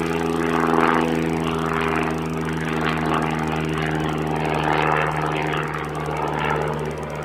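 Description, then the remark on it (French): A propeller airplane drones steadily in the airport zone of Montréal Saint-Hubert Longueuil, its engine producing a strong, even hum with a buzzing rotor tone that holds throughout, no voices present. “parce qu'une fois que tu seras passé devant, tu pourras tourner à gauche et tu atteindras le troisième et dernier segment de ton grand périple, la zone aéroportuaire de Saint-Hubert.”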